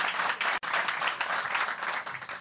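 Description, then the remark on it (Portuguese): Ministry staff applaud steadily in the Emílio Ribas auditorium at the Ministry of Health as Minister Mandetta arrives, dense overlapping claps forming a continuous roar, with one brief dip before the clapping resumes at full strength. “batendo palma, a imprensa não pode trabalhar.”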